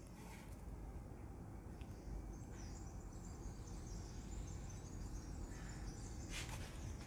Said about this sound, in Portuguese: Mas a vista da minha casa de banho não tem tipo nada assim de especial aqui à frente, mas tem uns verdes. Vejam lá se ouvem os pássaros, está mesmo poético isto.